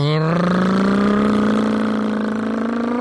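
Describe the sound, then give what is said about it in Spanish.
A voice imitates a motorcycle engine with a sustained buzzing drone that rises slightly in pitch, loud and steady for about three seconds without any words, as on a ride from Zaguayo, Michoacán to Zacatecas. “¿El moto?”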